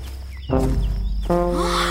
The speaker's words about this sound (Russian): Ой, медведь! Громадный какой вышел к избушке О, клыки какие желтые